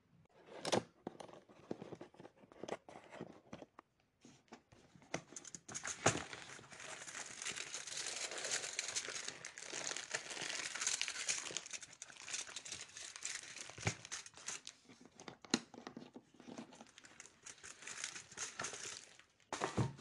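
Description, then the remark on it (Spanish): Paper crinkles and rustles continuously as a picnic basket is opened and paper-wrapped food is unpacked on a sunny rock ledge, with irregular crackling bursts and sharper crumpling snaps throughout, no voices. “Anika y Tommy cerraron los ojos y oyeron abrir la cesta y el crujir de los papeles.”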